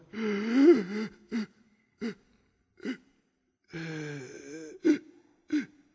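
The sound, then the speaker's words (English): A voice imitates the labored, rasping gasps for air of a man with late-stage cancer in both lungs: two long strained inhales, each followed by short sharp catches of breath in an uneven rhythm, fairly loud. “I learned later uh, at last stages of cancer in both lungs. And uh, he could barely breathe.”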